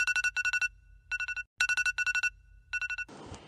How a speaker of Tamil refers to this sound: அலாரமை எதுக்கு வச்சேன்னு கூட தெரில ஃபோன் எடுத்துகிட்டு பார்த்தா மணி மூன்றரை ஆகிடுச்சு